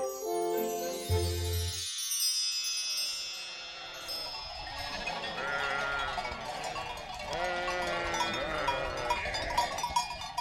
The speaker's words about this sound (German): Hey, wo kommt ihr denn plötzlich alle her? Das ist ja lustig. So viele Schafe. Oh, komm doch mal her. Du bist aber lieb.